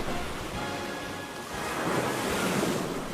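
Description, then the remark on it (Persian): Steady wash of sea surf rolling onto a beach of mud and sand, a broad continuous hiss that swells slightly louder in the second half, with some wind rumble and no voices. “پایین آن کنار دریا گل و ماسه بود که آب دریا کمی دورتر از آن موج میزد”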